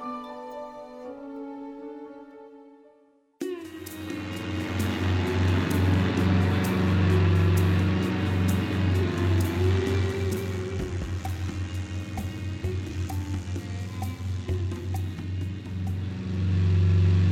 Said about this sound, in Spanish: un día, mientras volaba por el desierto, mi avioneta tuvo un fallo en el motor y cayó al suelo.